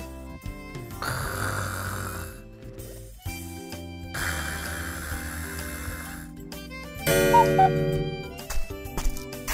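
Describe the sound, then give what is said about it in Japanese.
A streamer who has fallen asleep while editing snores in two long, rasping breaths separated by a short pause, moderately loud, with steady tonal music playing underneath. “こんなところで編集中の配信者が寝落ちてるな。”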